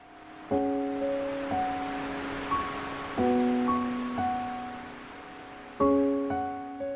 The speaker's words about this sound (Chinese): 屋的外面正刮着大风